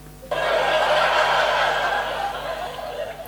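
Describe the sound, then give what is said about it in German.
A canned laughter sound effect played from a soundboard cuts in abruptly and plays loudly for about three seconds, a dense burst of snickering and chuckling with no one speaking over it. “Hast du eigentlich noch anderes als Lachen?”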